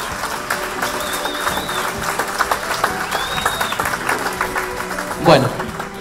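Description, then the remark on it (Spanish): Steady audience applause for the monkey, a dense wash of many hands clapping at an even level, with faint crowd murmur and a brief louder burst near the end. “Un aplauso para el mono.”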